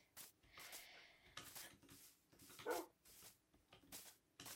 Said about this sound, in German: Wolf. Wolf, hallo. Noch ein. Also noch ein Wolf.